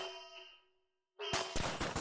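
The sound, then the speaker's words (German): A metallic ringing tone fades out, then after a brief silence a rapid burst of loud, sharp gunshots cracks out in quick succession, punchy, as agents fire several bullets into a body. “Einen Moment später schlagen mehrere Kugeln in den untoten Körper des Vampirs ein.”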